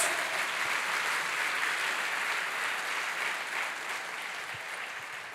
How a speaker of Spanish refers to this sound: Fuerte ese aplauso al que vive por los siglos de los siglos.